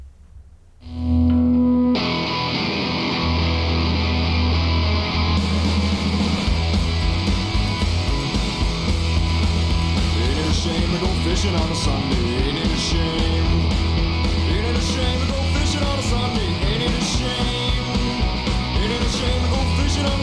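A rock song plays: after a brief quiet opening with a held tone, loud distorted guitars and drums kick in and drive on at a steady, dense level to the end.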